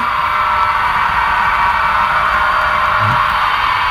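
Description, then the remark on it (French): A model locomotive's exhaust blast: a loud, steady rushing hiss that holds without a break for the whole clip, bright and airy rather than rhythmic, with no voices over it. “Ça, ça fait un sacré bruit, le, le souffle.”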